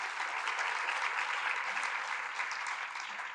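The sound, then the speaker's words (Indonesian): A church audience applauds for the Lord Jesus in a steady, dense wash of clapping that holds at an even, fairly loud level for the whole stretch, with no voices standing out. “Berikan tepuk tangan bagi Tuhan kita Yesus.”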